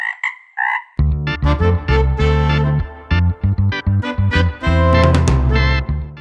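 A frog croaks loudly in a rapid, irregular run of deep, throaty calls, preceded by a few brief higher chirps, with no voices present.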